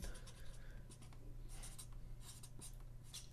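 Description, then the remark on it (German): Several pens scratch busily across paper at once during a quiz countdown, a dense, continuous scribbling with brief bright strokes over a low steady hum, with no one speaking. “Stifte bitte weg”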